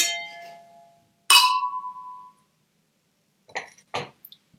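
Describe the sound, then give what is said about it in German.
Two prosecco glasses clink together in a bright ringing toast, the tone lingering for about a second, followed by a few softer glassy taps and clinks. “Ein Stößchen auf dich, liebe Anna. Ein Stößchen.”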